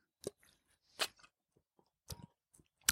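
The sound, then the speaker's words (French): Mouth sounds of someone taking a small sip of water while talking, to keep the voice from drying out: four short, wet gulping and swallowing bursts spaced about a second apart, fairly quiet, with no talking. “juste avant de, faire ces engagements je mets une petite gorgée d'eau”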